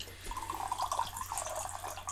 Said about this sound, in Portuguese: Isto é água.